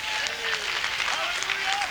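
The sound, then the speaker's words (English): A church audience claps their hands together in a steady, dense wash of applause that stays loud for the whole moment, with faint voices mixed in underneath. “Clap your hands, church.”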